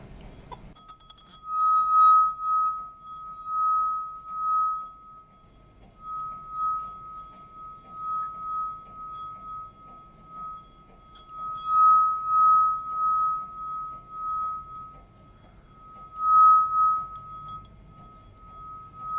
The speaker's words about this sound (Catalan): S'ha de mullar una mica la copa de vidre perquè rellisqui. I també has de tenir els dits una mica més mullats, com els que tinc jo ara mateix aquí.